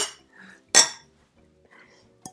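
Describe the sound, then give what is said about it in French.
Glasses of blueberry juice clink together in a toast: one bright, ringing clink, then a shorter tap near the end, with faint murmuring in the background. “Et euh, aujourd'hui, on te propose euh, de trinquer avec nous avec ce jus de myrtille.”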